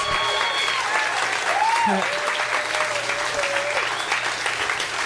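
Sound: audience applause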